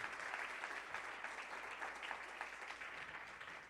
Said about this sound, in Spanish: Dale un aplauso fuerte al Señor, si tú lo crees.